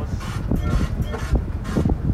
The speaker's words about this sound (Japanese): 今電車に乗っててあのひらひらーの電車に乗ってて